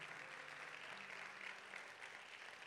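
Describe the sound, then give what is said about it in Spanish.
An audience claps steadily, giving a loud round of applause to the Lord, a dense wash of applause from many hands at strong, even volume with a faint hum of voices beneath. “Vamos a darle ese aplauso fuerte al Señor.”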